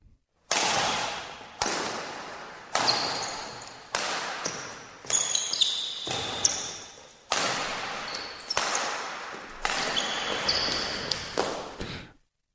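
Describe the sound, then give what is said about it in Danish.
A badminton match at the Badminton World Championships in the Royal Arena, Copenhagen: sharp racket strikes land roughly once a second, each trailing off in a long echoing wash, with brief high-pitched shoe squeaks in between and no talking. “VM i badminton er i fuld gang, og det var det, vi kunne høre her.”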